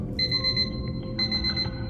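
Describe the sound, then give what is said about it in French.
An alarm clock rings at 5 in the morning with a bright, high electronic beeping in two bursts, a steady tone pulsing over a low background hum, with no voices. “À 5 heures du matin, le réveil sonne.”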